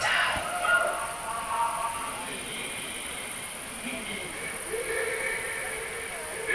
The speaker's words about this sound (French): C'est très sophistiqué, hein. Il y a un système de commande derrière, hein. Eh, on entend des drôles de bruit D'étranges échos. Ce sont trois trompes gigantesques qui vont résonner